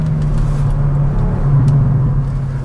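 vehicle, sports car exhaust burble

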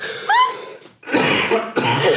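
human body sound, coughing

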